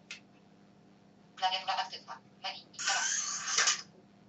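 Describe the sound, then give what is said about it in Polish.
A slider phone running the Slide Helper program is slid open, giving a loud, breathy pneumatic whoosh lasting about a second. It comes just after a few short electronic voice-like bursts from the handset announcing that the keyboard is active. “No i powiedział klawiatura aktywna i się, i się, że tak powiem, dźwięk pneumatyki rozległ.”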